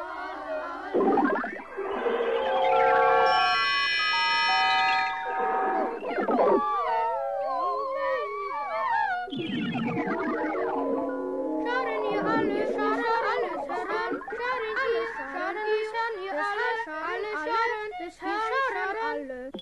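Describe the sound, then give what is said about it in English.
Voices recorded and then distorted with tape players, in a piece by Carl Stockhausen from around 1955, swoop and glide in pitch, layered with bright sustained tones and fluttering fragments, forming a dense, continuous electronic texture with no clear words. “You'll hear voices that were recorded and then distorted with tape players.”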